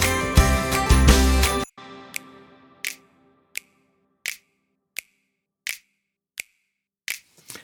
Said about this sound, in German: Also, wir haben zwei Schnipser. Äh, einmal einen, der komplett durchschnipst, jeweils auf, den jede, äh, auf jede Viertel, und einen, der auf jede halbe Note spielt.